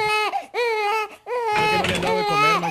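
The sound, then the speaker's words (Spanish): An infant wails in three long, high-pitched bursts separated by short breaths, each cry sliding downward in pitch. A lower voice seems to join faintly during the final stretch. “Es más, oílo como llora el chontarillo, caballo.”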